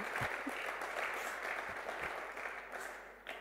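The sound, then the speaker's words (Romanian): An audience applauds steadily, a dense wash of many hands clapping with no voices over it, holding at an even level for the whole few seconds. “Dacă credeți în asta, aplaudă, te rog.”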